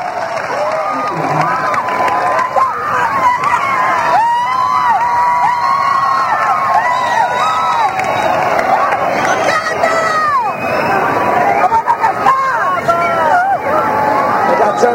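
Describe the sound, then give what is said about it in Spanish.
A large crowd at a band concert in the Sala Canciller, Madrid, on 28 November 1997 shouts and cheers for an encore, a dense, loud roar of many voices that swells and carries on steadily without a break. “Y llegamos con todos los gritos y las pasiones al momento bis, bises, bises, bises.”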